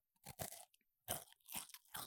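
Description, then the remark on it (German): Loud crunching as someone bites into a crisp wafer like a Duplo without the chocolate coating, followed by several sharp chewing crunches in an uneven rhythm, with no talking. “Und wenn du jetzt reinbeißt, pass auf, ich beiß jetzt rein.”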